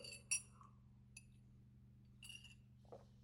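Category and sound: household object, glass clinking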